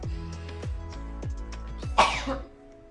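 A person with an allergy takes several quick rising breaths in a steady rhythm that build up to one loud, sharp sneeze burst near the end, then quiet. No talking.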